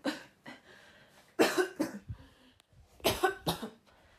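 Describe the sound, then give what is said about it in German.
A person coughs from dust after taking out a dusty air mattress, several harsh, dry bursts, a couple of quick coughs followed by two heavier fits, fairly loud with short gasps between them. “Als ich sie hervornahm, musste ich erstmal husten.”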